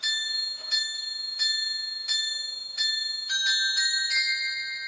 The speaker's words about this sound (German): Immer zur vollen Stunde ertönt ein Glockenspiel. Die alte Hafenuhr in Konstanz aus dem Jahr 1906. Ein idealer Treffpunkt und klingendes Selbstverständnis der Einheimischen.